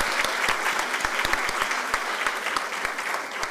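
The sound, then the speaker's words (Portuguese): An audience applauds the arrival of the national president of IBDFAN, many hands clapping in a dense, steady patter that holds at an even loudness throughout, with no voices standing out above it. “Alguém já aplaudiu a chegada do presidente nacional do IBDFAN, além do mais bonito, simpático?”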